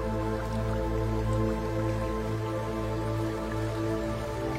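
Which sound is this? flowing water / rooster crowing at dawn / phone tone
flowing water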